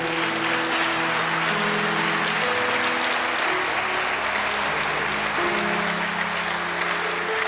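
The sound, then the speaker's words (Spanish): A church audience applauds steadily to honor church members being recognized, a dense, continuous wash of clapping with no talk over it, while low sustained organ or keyboard tones hum underneath throughout. “Hoy los honramos Iglesia, podemos dar un aplauso por sus vidas.”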